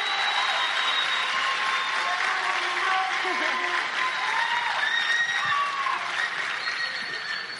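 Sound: audience applause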